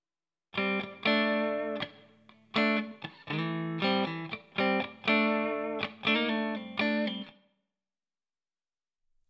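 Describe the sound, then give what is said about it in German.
A processed guitar-like chord phrase played through a digital reverb's Room A preset with a shortened decay, several strummed chords in a loose rhythm whose tail dies away quickly once the playing stops. “Dann machen wir den nochmal kürzer mit dem Decay.”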